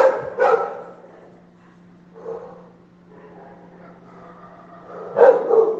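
Dogs at a home kennel bark in a few sharp bursts, a quick pair at the start, a softer one midway, and a louder flurry near the end, with a steady low hum underneath.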